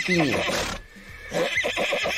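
animal, horse neighing

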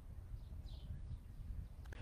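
bird, bird calling

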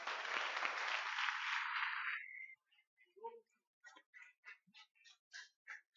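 crowd, audience applauding

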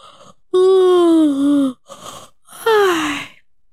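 human body sound, yawn

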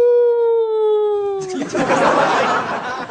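animal, wolf howling

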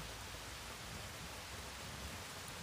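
nature, rain falling

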